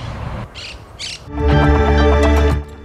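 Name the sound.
parrot squawking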